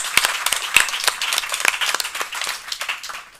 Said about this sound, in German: Also nochmal einen herzlichen Applaus, oder? Ja.